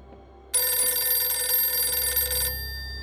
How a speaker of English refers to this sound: The phone ringing was what finally caused him to sit up.